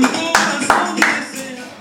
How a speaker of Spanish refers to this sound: Fuertísimo el aplauso